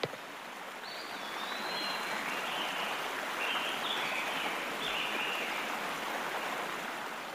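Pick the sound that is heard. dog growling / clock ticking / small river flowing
small river flowing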